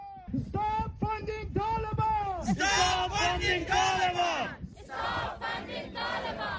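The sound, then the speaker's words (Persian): A large crowd of women, men and young people chants slogans in unison, loud, with rhythmic rising and falling shouted phrases that fill the whole stretch. They are protesting in sympathy with compatriots in Afghanistan against Taliban violence, some holding placards about Hazara genocide, on a sunny but very cold winter day below zero degrees Celsius. “در این هوای آفتابی اما به شدت سرد زمستان در دمای زیر صفر درجه سانتیگراد این زنان، مردان و جوانان میگویند که برای ابراز همدردی با هموطنانشان در افغانستان و بلند کردن صدای مظلومیت آنان در برابر خشونت طالبان گرد هم آمده و تظاهراتی را برپا کردند.”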